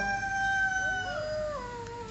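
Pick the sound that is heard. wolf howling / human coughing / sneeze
wolf howling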